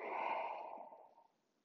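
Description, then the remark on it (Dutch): A long, breathy exhale blown out through the mouth during a breathing exercise, fairly loud at first, then trailing off softly over about a second and a half. No talking. “En uit door je mond.”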